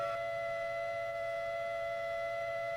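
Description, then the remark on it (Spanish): A steady, piercing high-pitched tone of the kind of frequency used for acoustic levitation holds one unbroken pitch for the whole stretch, with a faint low hum beneath and no voices. “Que con ese tipo de, de sonidos, de frecuencias, es que hacen levitar las cosas.”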